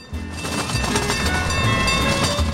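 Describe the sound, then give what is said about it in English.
A full zoo train at the Milwaukee County Zoo rumbles steadily along its tracks, a continuous low mechanical drone with faint rhythmic clatter and a sustained engine hum, no voices. “Well, looks like they have a full train today at the Milwaukee County Zoo.”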